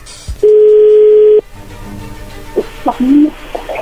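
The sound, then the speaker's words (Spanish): A telephone ringing tone sounds once as a call goes through, a loud, steady, mid-pitched hum lasting about a second, then gives way to low line noise and a few faint, brief voice-like sounds. “A ver, parece que ya entró la llamada no hay ruido.”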